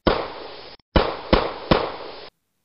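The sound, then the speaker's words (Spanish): Four loud gunshots fired from inside a building at men who have broken the padlocks on its doors, each sharp crack trailing into a brief echoing tail; one shot, a short pause, then three more in quick succession, with no voices. “Desde adentro, alguien los repele a tiros.”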